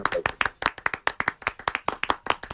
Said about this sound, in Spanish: Jefe, un aplauso.